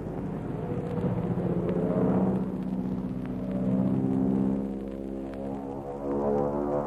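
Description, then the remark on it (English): The propeller engine of Biggles's Mosquito drones loudly and steadily, its pitch swelling and shifting as the aircraft tips into a steep dive straight at the grass. The deep, rumbling roar fills the whole recording with no voices. “Biggles sees his objective ahead, glances back to make sure that Algy and Bertie are following the proctor, and then sends his machine into a steep dive.”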